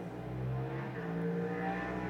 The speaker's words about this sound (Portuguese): Ok, vai passar outra moto.